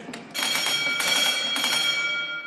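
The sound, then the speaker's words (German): A ship's engine telegraph bell, swung once back and forth so the engineer below hears that a signal is coming, rings in a rapid, continuous jangle of bright metallic strikes lasting about two seconds, loud and clear with no voices. “Das, dieses Klingeling, das macht er einmal hin und her, damit der Maschinist da überhaupt erstmal hört, da ist was.”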